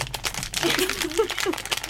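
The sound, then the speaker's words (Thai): Crinkly plastic rustling and crackling as a snack bag is pulled open, with faint voices murmuring in the background. “อยู่นี่เป็นเสียงการแกะถุง”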